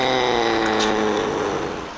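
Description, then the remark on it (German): A Pallas's cat (manul) gives a single sustained call, a loud, raspy, buzzing tone rich in harmonics that holds steady for about two seconds before easing off slightly at the end. “Und ungefähr so klingen sie auch.”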